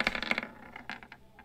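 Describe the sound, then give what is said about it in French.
Dice clatter across a hard surface in a quick burst of sharp rattling clicks, then a few scattered taps as they settle, rolled for a perception test and giving 17. Fairly quiet, with no voices. “17, ça c'est un bon jet de perception.”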